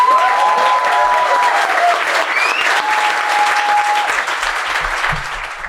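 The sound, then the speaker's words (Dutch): A club audience claps loudly and steadily for several seconds to welcome the guest Roué, a dense wash of applause with a few whistles rising above it before it begins to thin at the end. “Dus eh, we willen graag een keihard applaus voor onze gast, mijn goede vriend Roe Evenveer.”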